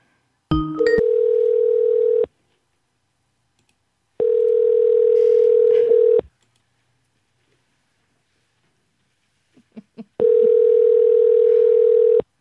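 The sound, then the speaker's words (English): A telephone ringback tone purrs three times, each steady electronic tone lasting about a second and a half with pauses between, heard over the line while a call is being placed. “Let's call him one more time.”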